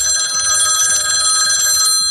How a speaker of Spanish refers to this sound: Pero ¿qué pasa si esas pequeñas siestas son interrumpidas por el sonido impertinente de un teléfono?